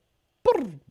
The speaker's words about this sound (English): that's my dog. That's Winston.